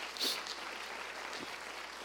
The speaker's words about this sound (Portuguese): Pode aplaudir ao Senhor, queridos.